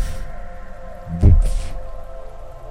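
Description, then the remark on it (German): A deep, heavy thud lands once, muffled and booming like a big footstep on a floor above, with a faint scuffing tail, set against a low steady background hum. “Oh, das klingt, als würde er über uns laufen oder so. Was ist das? Es klingt auf jeden Fall sehr groß. Es wumpft weiter.”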